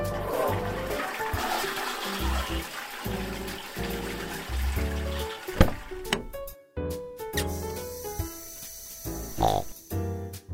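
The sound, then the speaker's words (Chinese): A toilet in a washroom flushes after Mr. Pig, a cartoon pig, has used it, in a rushing, gurgling wash of water over the first half, set against a bouncy musical backing that carries on alone afterward with plucked, tonal notes. “上完厕所的猪先生顺手把篮子捡走。”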